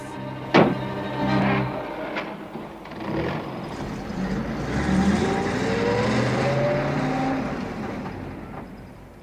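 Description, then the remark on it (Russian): After people are told to get into the car, a sharp thud like a car door sounds, then a car engine rumbles and revs up, its pitch rising as the vehicle pulls off, fading slightly at the end. No voices. “Садитесь в машину.”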